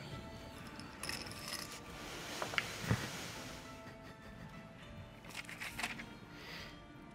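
Faint dice rattle and clatter across a surface as they are rolled for a wisdom check in a tabletop game, a few quick clicks and knocks near the middle, with no talking, just quiet background hiss.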